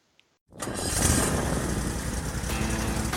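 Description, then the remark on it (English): After a brief silence, a Toro Z Master 4000 zero-turn riding lawn mower engine abruptly fires up and settles into a loud, steady rumble that continues to the end, with no voices. “I hear it every time my new Toro Z Master 4000 zero turn starts up.”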